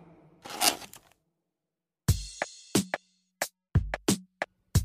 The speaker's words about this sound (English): That was the sound of someone opening a styrofoam container.